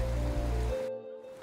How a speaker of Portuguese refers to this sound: Eu estou aqui ao lado desse riacho que produz esse som tão gostoso de água correndo entre as pedras. E eu passei um tempo aqui só escutando o que o riacho tinha para me dizer.